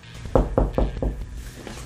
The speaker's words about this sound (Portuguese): A galera que vai gravar o próximo podcast já tá batendo aqui na porta do estúdio